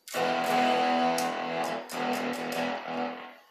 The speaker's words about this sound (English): distortion. Don't sound too good now, does it?